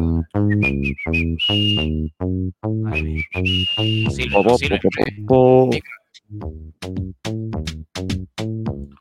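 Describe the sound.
Someone whistles a bouncy theme tune in short, rhythmic notes, joined by voiced humming; midway a brief burst of voices and laughter interrupts before the melody resumes.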